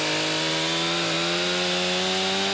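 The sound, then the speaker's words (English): A chainsaw cuts an ice fishing hole in the ice of Westchester Lagoon as crews clear snow off the lagoon. Its engine holds a steady, loud droning buzz with a slight dip in pitch partway through. No one speaks. “He says right now crews are clearing roughly 24 inches of snow off the lagoon and cutting an ice fishing hole so they can create a thicker layer of ice.”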